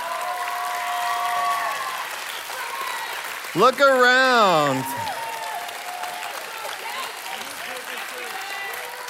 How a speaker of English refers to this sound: and right now, what I want is for all of our Rev students leaders in purple shirts, I want you to stand up. Stand up and let's cheer and celebrate all of our Rev students leaders.